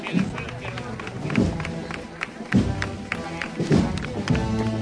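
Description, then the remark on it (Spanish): The whole audience gathered in the plaza of Fuente Piña cheers and applauds in a great ovation, a steady wash of clapping and shouting voices that swells in bursts every second or so and stays loud throughout. “Gran ovación de todo el público congregado en la plaza de Fuente Piña.”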